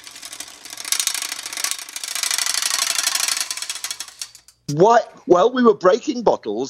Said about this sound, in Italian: Poi c'era una bicicletta messa a testa in giù. Facevo girare la ruota con il pedale e facevo scorrere un coltello tra i raggi della ruota. E faceva. Brrr, brrr, brrr. Provate a cercarlo. Si può sentire alla fine della traccia.